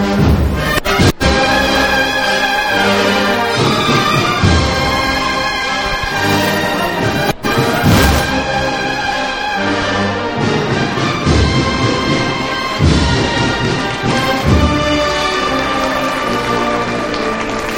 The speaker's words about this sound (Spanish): Escuchamos a la banda de Jesús Despojado tras la borriquilla.